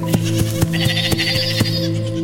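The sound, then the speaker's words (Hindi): Goats bleat in a wavering, drawn-out cry over a steady, rhythmic knocking, with a constant low hum underneath, heard from the right side in a forest across a river; no one speaks. “दौड़ते हुए जाने लगा कि तभी दौड़ते हुए ही उसे दाई तरफ से बकरियों की आवाज एक बार फिर सुनाई देने लगी”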